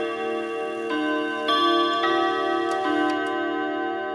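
A clock plays the Westminster chimes melody: four ringing, overlapping bell notes struck a half-second or so apart, sustaining over a steady, soft tick-tock. No one speaks.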